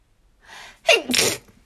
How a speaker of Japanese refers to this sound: はい、くしゃみもはい、本当の自分をね、見せるということで、くしゃみもカットせず失礼しました。大変失礼いたしました。花粉症でしょもう、失礼。